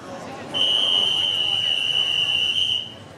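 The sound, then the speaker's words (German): A firefighter standing on a chair in the middle of a room blows his whistle again: one long, shrill, steady blast lasting a couple of seconds, loud over a low background murmur of noise. “Der Feuerwehrmann pfeift wieder.”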